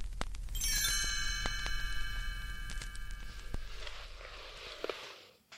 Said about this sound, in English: You can follow along in your book. You'll know it's time to turn the page when you hear the chimes ring like this.